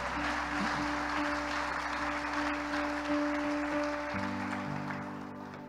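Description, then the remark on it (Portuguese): An audience applauds in a steady, dense wash of clapping lasting several seconds, with a sustained organ-like tone humming underneath before the clapping gradually thins out. “Pode aplaudir que é para Ele, irmão.”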